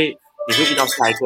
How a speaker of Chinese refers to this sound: 这是新的声音，吓到我，你玻璃杯碎了吗？ 不是啦，是因为刚好电话进来 哦。我把我的电话关静音，因为我怕突然间叮咚叮咚叮咚。